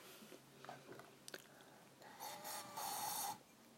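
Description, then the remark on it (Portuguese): Breathy blowing into a glass holding more water, in a water-glass xylophone activity, a few short puffs followed by two longer, louder blows that ring with a hollow, airy tone, with no talking. “E esse é o copo com mais água.”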